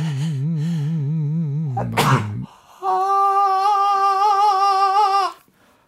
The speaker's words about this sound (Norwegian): Ja, akkurat. Men nå kjem der et nys.